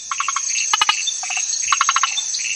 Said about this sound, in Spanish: La rana de zarzal vive en amplias zonas de Sudamérica, es de un color verde brillante con puntos rojos o blancos y tiene unos ojos enormes.